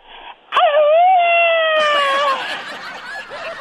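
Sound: mexican grito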